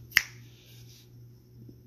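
A single crisp finger snap, a sharp bright crack that cuts off quickly, followed by near silence over a low steady hum.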